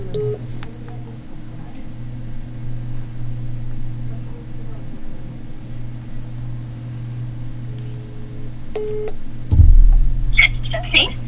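A few short electronic telephone dialing beeps sound over a steady low hum as a phone call is placed, with a brief louder clunk of handling near the end.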